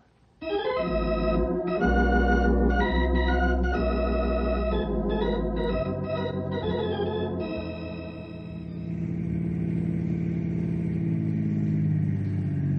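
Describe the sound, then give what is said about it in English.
A car engine starts up with a loud, steady rumble, then revs and accelerates as the vehicle pulls away, the tone rising and shifting toward the end. No one speaks. “Let's get in the car.”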